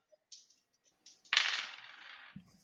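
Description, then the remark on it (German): Dice rolling: a couple of light clicks, then a loud clattering rattle that fades over about a second and ends in a soft thud. Nobody speaks. “Ähm, dann würfel ich mal.”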